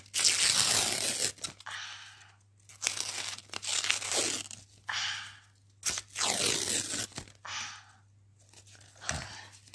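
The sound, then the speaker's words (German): Paper being torn, in several ragged bursts of ripping and crinkling separated by short pauses, with a faint steady hum underneath and no talking. “Shit, das Papier ist zerrissen.”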